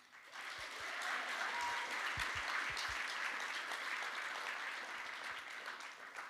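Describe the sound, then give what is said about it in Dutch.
An audience at a church service claps steadily for several seconds, a dense wash of many hands with a few sharper individual claps standing out, sustained at a fairly even level throughout. “Zullen we applaus geven?”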